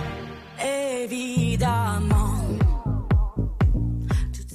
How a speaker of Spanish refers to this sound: y la canción se llama … Y suena así.